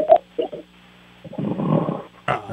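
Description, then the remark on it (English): Low, rumbling snores of a man come through a thin, band-limited phone line: a few short snorts, then a long drawn-out rasping snore and a final brief snort, fairly loud with no one speaking. “Oh, he's got a little snoring situation.”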